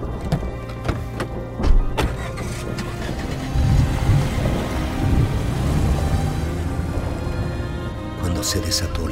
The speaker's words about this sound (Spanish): Los relámpagos iluminaron toda el área. Por momentos, con los estallidos de los truenos, parecía que el cielo se incendiaba en llamas.